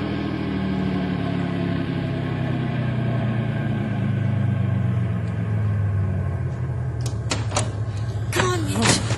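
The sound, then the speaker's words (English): A car engine rumbles steadily and winds down as the vehicle is gently slowed to a stop, followed by a few sharp clunks and clicks of car doors opening near the end as everybody gets out. “When I give the word, Sam, stop the car gently and everybody out.”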